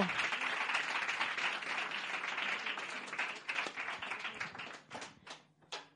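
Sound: loud audience applause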